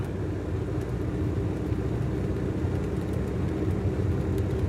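A vehicle rumbles steadily along a country road in northern Bornholm on a sunny spring morning with blue sky, its low engine drone and tire noise continuous, with no voices over it.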